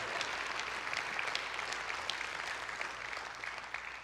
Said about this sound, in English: Put your hands together and let's thank Jesus. Would you?